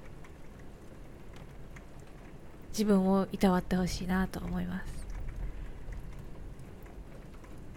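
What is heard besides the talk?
heavy rain falling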